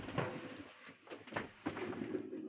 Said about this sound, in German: Oh, jetzt kommen Menschen. Jetzt kommt der Reis. Wir machen kurz mal die Tür auf.